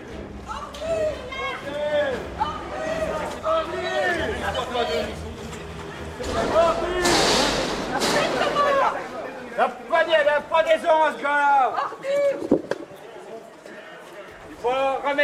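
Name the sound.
crowd booing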